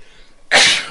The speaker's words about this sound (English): Bless you.